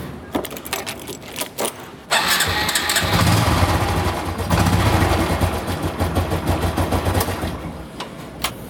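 A Honda Revo 110 motorbike engine is cranked with a few short starter bursts, then catches and runs with a steady buzzing putter that rises slightly as it revs, with no talking.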